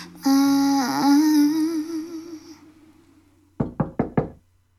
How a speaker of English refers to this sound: Yeah, there's little knocking at the end of that tune. Isn't that that weird?